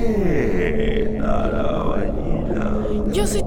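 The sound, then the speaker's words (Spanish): A whale vocalizes as social communication used for orientation, in loud, continuous low moans with sliding, wavering pitch and a layered, harmonic tone, swelling and bending for a few seconds without pause. “Nos está hablando. ¡Qué sonido más potente!”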